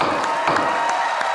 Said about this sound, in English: This is the sound of a gavel and great appreciation.